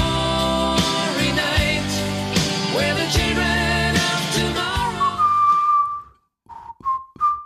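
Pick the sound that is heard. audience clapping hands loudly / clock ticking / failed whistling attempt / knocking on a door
failed whistling attempt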